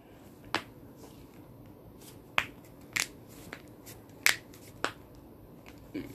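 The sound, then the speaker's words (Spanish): A series of sharp cracks pop out one at a time at irregular intervals, about six or seven snaps as a person cracks their finger knuckles, against a quiet background with no talking. “Perdón porque tenía que escuchar a mi, este, a mí rompiéndome los dedos.”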